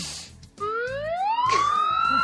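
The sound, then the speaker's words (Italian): A voice imitates a fire engine siren with one loud wail that rises steadily and then holds a high, sustained pitch, with no other talking. “Però questa è quella dei pompieri, e eh, ti voglio dire che non è proprio fedelissima.”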